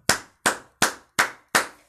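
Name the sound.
applause clapping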